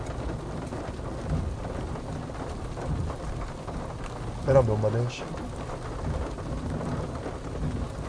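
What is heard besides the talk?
heavy rain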